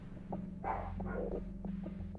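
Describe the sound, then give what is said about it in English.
Dogs bark in the background, two or three muffled, fairly faint barks in quick succession over a steady low electrical hum, with no one talking; the dogs are testing their barks ahead of going on a walk. “That's security team in the background testing their barks because they're going on a walk today and they want to bark at this big dog that they saw at the park yesterday.”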